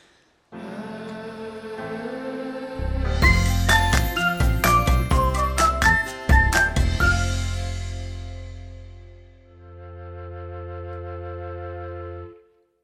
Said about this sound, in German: Ich würde sagen, wir lassen das jetzt erstmal wirken und nutzen die Zeit, dass ich wieder ein bisschen Musik spiele.